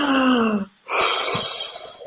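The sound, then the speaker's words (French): A person demonstrates breathing: a short, voiced gasping intake with a falling pitch, a brief pause, then a long, airy exhale that hisses steadily and slowly fades. “Voilà, j'entends une respiration, on, me voit, il faut qu'il souffle.”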